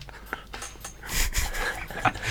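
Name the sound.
dog barking and panting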